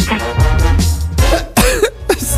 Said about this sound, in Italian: scusate se ho tossito in diretta, ma sto morendo.